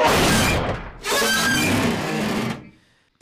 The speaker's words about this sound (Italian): L'intera fiancata firmata dallo spigolo del muro.